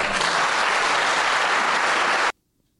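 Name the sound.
crowd applause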